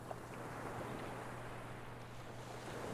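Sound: ocean waves roaring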